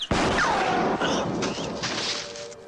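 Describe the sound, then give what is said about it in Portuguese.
A sudden loud gunshot in a film scene, fired at a man stepping out from a wall, cracks out near the start, followed by a falling whistle and a dense, noisy aftermath of rumble and clatter that lingers for a couple of seconds. “À medida que eles vão se aproximando, o do Bell, ele tá, ele tá ali encostado no muro, quando ele sai do muro, o ferro vê ele e atira.”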